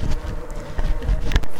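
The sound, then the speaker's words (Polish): A steady buzzing drone of motorcycle engines, motocross bikes riding in a nearby forest, continuous and fairly faint with slight swells in pitch. “tle w lesie tutaj pobliskim słychać buczenie”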